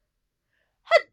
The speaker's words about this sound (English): Well, she didn't say bless you after I sneezed. I was waiting to see if it was your last sneeze, please.